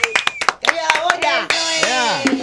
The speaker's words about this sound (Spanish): un aplauso.